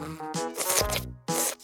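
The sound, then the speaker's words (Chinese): A quick cartoon whoosh of a magic little bee flying quickly to the front of a juice cup: airy, swishing bursts with gliding whistle-like tones. A short gap separates it from a final loud swoosh. No one speaks. “神奇小蜜蜂嗖的一下飞到果汁杯的前面。”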